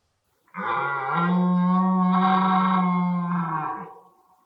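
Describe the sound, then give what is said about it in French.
A red deer stag lets out a single long, deep rutting bellow during the mating season, a sustained, throaty roar lasting several seconds, heard loud with no other sounds around it. “comment c'est, ce gros chant prononcé par par le cerf pendant la période des amours, qu'est-ce que ça signifie”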